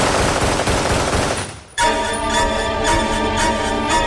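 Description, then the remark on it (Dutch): A loud, dense burst of rapid gunfire rattles for over a second, then cuts off and gives way to a sustained ringing, tonal sound with faint rhythmic pulses. No one speaks. “knalde hij al die indianen dood.”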